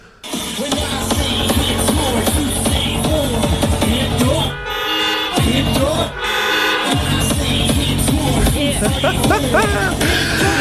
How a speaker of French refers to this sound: Et en place, les gens, en place de crier, tout le monde klaxonne de partout, les fenêtres fermées, tout le monde est dans leur voiture, tu vois les autos qui shake d'un bord et de l'autre.